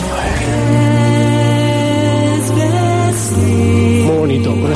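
A Slovenian choir sings a cover version of a song in close, sustained harmony, voices holding long rich chords at a steady, full volume throughout, with some pitch shifts toward the end.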